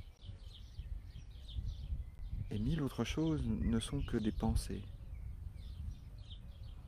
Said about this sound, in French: Des pensées qui se collent sur le son, sur le cri fugitif d'un oiseau qui arrive à mes oreilles, ou sur le son du battement de mon cœur.